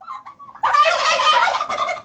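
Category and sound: bird, turkey gobbling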